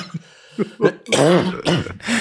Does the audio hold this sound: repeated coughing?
yes